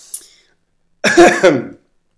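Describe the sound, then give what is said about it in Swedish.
A person clears their throat with a gruff, rasping cough, preceded by a faint short breath; the sound is fairly loud, lasting under a second. “sedvanliga hostningarna också.”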